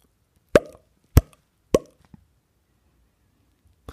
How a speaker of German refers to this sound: Aber dann hörte sie auf einmal auf zu reden und runzelte die Stirn wegen der Ploppgeräusche.